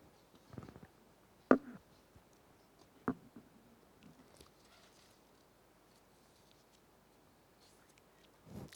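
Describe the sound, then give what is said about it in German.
Quiet paper handling: soft rustles and a couple of sharp crinkling snaps as a sheet is fumbled and turned, with faint scratchy rubbing between them, otherwise hushed. “Jetzt lässt sich mein Blatt nicht umblättern.”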